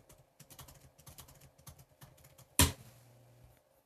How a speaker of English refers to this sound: Can you hear me typing?